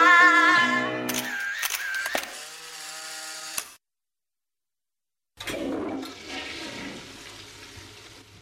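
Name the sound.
toilet flushing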